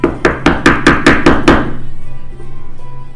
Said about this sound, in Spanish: que escuché la, escuché la puerta, Espera un ratito, que creo que llega alguien.